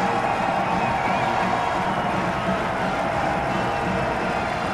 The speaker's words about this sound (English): Crowd comes alive here on third and long.